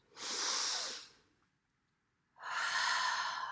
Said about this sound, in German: Und jetzt atmet man tief ein, so.